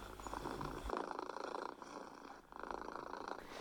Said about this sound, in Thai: เสียงกรือต่ำๆเป็นจังหวะที่แมวเปล่งออกมาโดยไม่อ้าปากนะคะ เป็นเสียงที่สามารถตีความได้สองความหมายค่ะ ซึ่งต้องดูว่าในขณะนั้นแมวกำลังทำอะไรอยู่